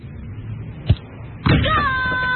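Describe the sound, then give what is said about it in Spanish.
A child who never stops playing ball thumps a ball against things in a living room, one sharp hit and then a heavier bang about half a second later, followed by a drawn-out whining tone over a steady background. “Ese es el sonido de un hijo que nunca deja de jugar a la pelotita en el living.”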